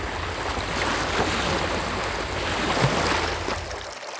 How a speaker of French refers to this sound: écoutez le son du large sur Onde Bleu la radio.